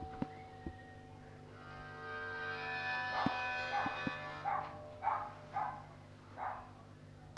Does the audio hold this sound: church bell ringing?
no